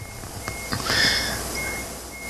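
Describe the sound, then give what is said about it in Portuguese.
A garbage truck's reversing alarm sounds a few steady high-pitched beeps over a rumble of engine and street noise with some brief knocks. “Ah, é, é o caminhão Fecha do portão. lixo.”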